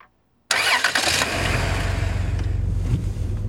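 A car engine cranks and catches abruptly after a brief silence, then settles into a steady, loud idle with a low rhythmic rumble.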